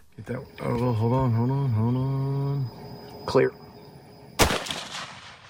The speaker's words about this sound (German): Ein Schuss, das majestätische Tier fällt. Ausschnitt aus einem Werbevideo der Hunt Lodge in Texas.